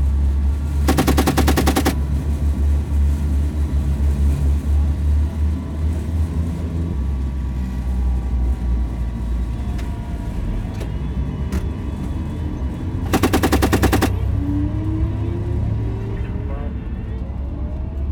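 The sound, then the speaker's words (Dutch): Two short bursts of rapid automatic fire from a 35 mm cannon and a 7.62 mm machine gun mounted on top of a vehicle, loud, separated by a long pause, over a continuous low rumble of a heavy vehicle engine. “Bovenop hebben wij 35 mm kanon. Dit kanon kan worden ingezet tegen lucht- en gronddoelen. Ook hebben we een mitrailleur met het 7,62 eh, kaliber.”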